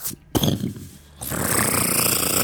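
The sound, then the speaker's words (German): Heavy chains clank and rattle as they are hauled, starting with a sharp metallic knock and then a steady, grinding, dense rattle that grows louder and continues to the end. “Einer der Gestalten verschwindet und hört ihr, wie Ketten gezogen werden und dann hört ihr”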